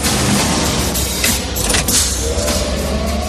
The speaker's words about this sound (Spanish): Y me encantan esos soniditos que hacen los coches voladores en las películas.